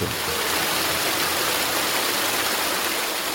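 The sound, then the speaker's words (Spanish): Steady, dense rush of falling water from a waterfall on the route of waterfalls between Baños de Agua Santa and Puyo, a continuous roaring hiss that stays loud and unchanging throughout, with no voices over it. “Mediante un recorrido por 60 cascadas se puede apreciar la bella vegetación que posee Baños, considerada como la puerta de entrada a la Amazonía.”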